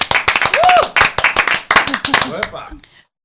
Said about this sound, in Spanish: si yo digo que tenemos como invitada a la …, entonces sube el aplauso y la alegría